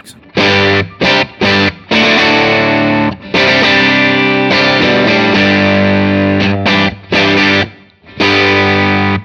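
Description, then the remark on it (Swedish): A loud, distorted electric guitar played through a tube amp with EL34 tubes, chugging out thick chords in short bursts separated by brief gaps, then longer sustained passages with a saturated, crunchy tone. “E EL34 då? Från? Från? Electro”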